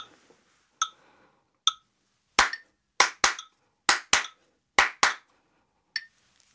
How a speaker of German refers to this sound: Und das ist dann der Shuffle-Rhythmus.